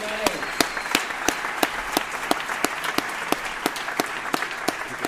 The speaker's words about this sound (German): Aber jetzt nochmal einen dicken Applaus an